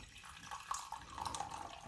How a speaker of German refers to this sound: Und wenn du mir deine Tasse reichst, dann würde ich dir einfach jetzt mal einschenken. Ja, bitteschön.